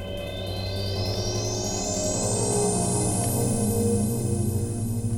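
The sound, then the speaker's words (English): Layered electronic synth tones drone steadily and loudly from a groove box at radio station KZSM, with a pulsing low pattern underneath and a high whistling tone slowly sweeping upward, with no voices. “It's like an entire electronic music studio in one little box and um, just gonna see what pops out.”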